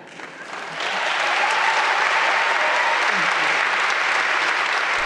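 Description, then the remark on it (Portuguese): An audience breaks into sustained applause after a reading of a poem by Lucille Clifton, a dense wash of clapping that swells within the first second and then holds steady and loud to the end. “E ficam os aplausos, porque é tão sentida esta leitura, tão vibrante, tão de dentro, na voz da autora Lucille Clifton.”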